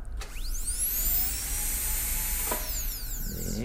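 A dental instrument runs with a spray of water in a patient's open mouth during treatment at a dental clinic, giving a steady high-pitched whine over broad hissing noise, its pitch gliding up and down, with a couple of brief clicks and no talking.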